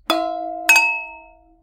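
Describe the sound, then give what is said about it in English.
Two glasses clink together in a toast, one clear ringing chime followed by a second a moment later. Each strike leaves a bright, bell-like tone that slowly fades out, with no voices. “Time for cheers. Let's do it. Cheers. Cheers.”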